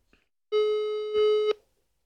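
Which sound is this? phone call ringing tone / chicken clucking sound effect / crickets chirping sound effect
phone call ringing tone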